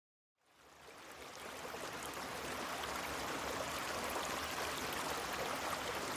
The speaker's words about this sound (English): It's got the sound of the creek behind my cabin in the background.